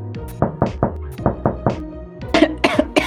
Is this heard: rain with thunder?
no